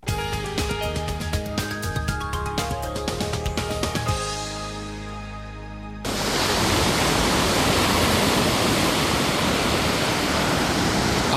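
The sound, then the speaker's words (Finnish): A short musical passage fades out, then a steady, loud rush of waves washes against a lake shore near a village in Finland, a continuous churning of water with no voices. “Auto iskee rantaan Lataniaksen kylän tuntumassa. Äänimaailma on huikaiseva.”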